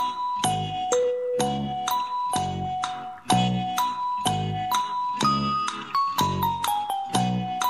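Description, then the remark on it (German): A doorbell rings as the postman arrives, a long melodic chime of about fifteen bright, ringing notes struck in quick succession at a steady pace, loud, with no voices. “Wer Post, klingelt da? Wer klingelt da?”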